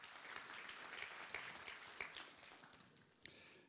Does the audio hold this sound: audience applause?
yes